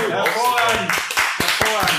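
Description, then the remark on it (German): A few scattered hand claps from a small group of three spectators break out, irregular and brief, mixed with a voice talking over them. “Danke für den spontanen Applaus.”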